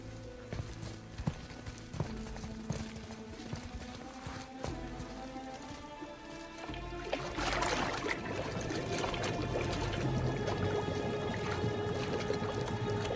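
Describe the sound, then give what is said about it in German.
After a few sharp knocks, a severed head is plunged into water and held under with a burst of splashing, followed by steady churning, gurgling water that carries on to the end over a sustained tonal background. “Tauche jetzt seinen Kopf ins Wasser und lass nicht los.”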